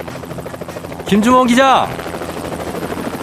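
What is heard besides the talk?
helicopter rotor noise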